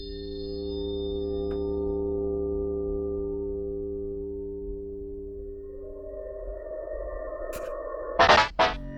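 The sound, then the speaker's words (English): Steady electronic tones hum and drone, then a rising synthetic sweep enters, ending in a few sharp, loud bleeping bursts near the close. No voices are present. “We're just listening to random bleeps and bloops.”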